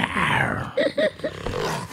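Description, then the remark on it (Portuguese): A person imitates a tiger's roar, a loud, throaty growl that rises and breaks into a few rough bursts before trailing off, with no talking. “Você tá com cabelo de tigre, você tem que. Eu tô. Rugir.”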